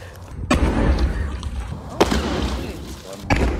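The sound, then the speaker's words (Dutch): Three loud, sharp bangs from a single Cobra heavy firework explode about a second and a half apart, each a booming blast over continuous rumbling background noise. “Dit kan er dus gebeuren met een cobra.”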